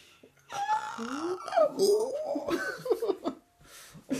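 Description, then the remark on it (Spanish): A human voice imitates the shrieks of the Imbunche, a monstrous folklore creature, as it is whipped while being moved between caves: a quick run of wavering, gliding yelps and strained squeals, fairly loud, with brief gasping breaks between cries. “durante el camino, cuando el Munche se cambia de cueva y lo van azotando, el Imbunche iría dando gritos que aterran a los habitantes del lugar y con ello les anuncian alguna próxima desgracia.”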